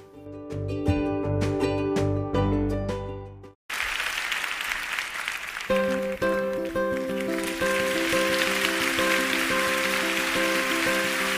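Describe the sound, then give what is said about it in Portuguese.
A Brazilian festa junina song with bright plucked and struck notes cuts off abruptly, then loud crowd noise and clapping rise, with steady accordion-like chords returning over the noisy crowd. “Antes de terminar, vamos ouvir mais uma música junina.”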